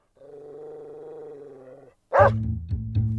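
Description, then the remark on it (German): An agitated dog growls in a long, steady rumble, pauses, then lets out one sharp, loud bark followed by more agitated low growling, with no one talking. “der Hund bleibt aufgescheucht und bauen und joffelt so rum, wie ein, wie ein, äh, ja, halt wie ein aufgescheuchter Hund.”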